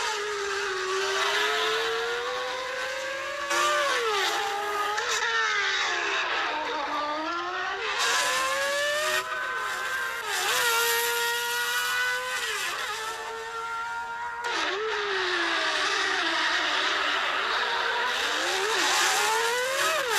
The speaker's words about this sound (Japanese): F1 日本グランプリ予選でアイルトン・セナが樹立した世界記録走行データに刻まれたあの日の奇跡から24年前のエンジン音が蘇る